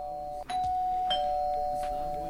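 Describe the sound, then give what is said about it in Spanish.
An apartment doorbell, rung a second time to check whether the home is empty, rings once with a steady, sustained electronic tone lasting nearly two seconds, clear, with faint background noise and no one speaking. “Pasa el tiempo, no pasa nada, deduzco que no hay nadie pero le toco timbre de vuelta para asegurarme de que efectivamente la casa está vacía.”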